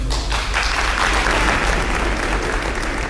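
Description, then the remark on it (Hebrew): An audience of soldiers applauds at a military troupe's show, a steady wash of many hands clapping that holds at an even, fairly loud level for about three seconds, with no voices rising above it. “אנחנו מקווים שתגיבו בהתאם, תמחאו כפיים במקומות הנכונים”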